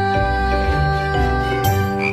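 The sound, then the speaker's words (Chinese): A little frog croaks several times in steady, resonant bursts over a sustained tonal backdrop, with a faint bright tinkle near the end and no voices. “一声小青蛙，呱呱跳心中。”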